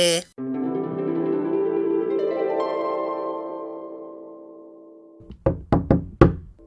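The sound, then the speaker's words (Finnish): In a radio play, a sustained musical chord slowly fades, then four loud knocks on a door land in a quick, uneven sequence near the end. “Hilma, avaa ovi. Elsa täällä, minulla on tärkeä tassi siulle.”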